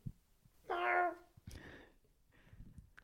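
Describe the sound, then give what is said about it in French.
A single drawn-out meow from a cat named Bergamote rises clearly and loudly, followed by softer rustling and a faint second vocal murmur, with no talking. “Voilà, c'était la parole de Bergamote.”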